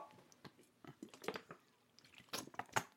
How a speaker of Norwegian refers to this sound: Litt vann der fra min uh, trusty flask.